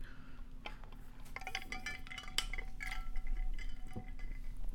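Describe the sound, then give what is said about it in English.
Someone takes a sip of Coke Zero, with a few light glassy clinks and short wet sounds over a steady low hum. No one speaks. “And let me take some some Coke Zero into my mouth.”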